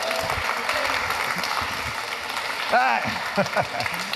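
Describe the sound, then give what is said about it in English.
A crowd claps steadily as a kid from the back is invited up, a dense, continuous patter of applause, with a few voices calling out over it near the end. “A big round of applause.”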